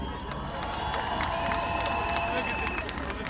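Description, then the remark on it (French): A large crowd at an event with a truck stage cheers and shouts continuously, making noise at the speaker's request, with scattered clapping and a sustained whistle cutting through the dense, steady roar for the whole few seconds. “Je veux juste qu'on fasse du bruit aussi parce qu'on a réalisé tout ça toute seule, faut le dire.”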